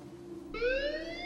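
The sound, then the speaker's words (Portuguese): An alarm, triggered when a door is blown open in a video game scene, starts abruptly partway in: a bright, steady, rising electronic wail with strong harmonics, sounding loud over a low background hum. “Elas explodem na né, porta e tocam o alarme.”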